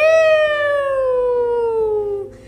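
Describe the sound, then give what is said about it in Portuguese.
A whistling wind sound effect, the little wind Ventinho going 'fiu': one long, loud, steady tone that glides slowly downward in pitch for about two seconds, heard alone, then quickly fades. “Julieta regalou os olhos e Ventinho fez fiu!”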